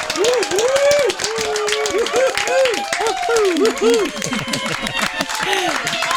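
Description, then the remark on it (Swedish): Studio audience applause on the show Riksmorgonzoo, welcoming guest Maria Lundqvist: dense, steady clapping throughout, fairly loud, while voices talk and call out over the top of it. “Ja, visst, applåder, välkommen!”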